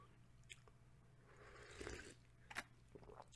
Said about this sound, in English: Quick sip of coffee, tea, quick sip of tea, tea boss, don't mind me boss.